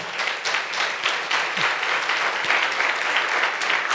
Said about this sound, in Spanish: Fuerte ese aplauso al Señor.